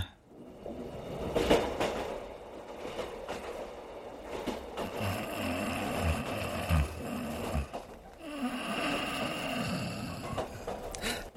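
A train rolls steadily along the rails, a continuous rumbling clatter with occasional heavier clunks and rattles, unbroken throughout, with no voices.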